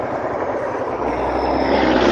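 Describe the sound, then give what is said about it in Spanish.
A loud, steady truck rumble: continuous engine and road noise with a low drone and broad hiss, holding constant and swelling slightly toward the end. No one speaks. “Sí se oye por ahí un murmullo, güey, pero se oye más el ruido del camión.”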